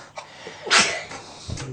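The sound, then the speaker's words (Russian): A single sharp sneeze bursts out, a quick intake followed by a loud explosive release, with faint background noise around it. “Будь здоров.”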